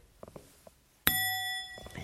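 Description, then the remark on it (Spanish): A doorbell gives one sharp, bright metallic ding that rings on with a shimmering tone for about a second, preceded by a few faint soft clicks. “A lo mejor hay timbres que los puedes tener así, pero aquí hay tradición de que todas las casas, o casi todas las casas, todas las puertas, tienen este”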